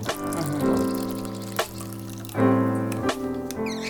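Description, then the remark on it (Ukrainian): Liquid trickles and splashes into a cup in a few short pours, clear, as part of intro music, over a steady, soft musical backdrop with no voices. “в музичці ви, напевно, чули, як наливається якесь вино або чай, або кава, або какао.”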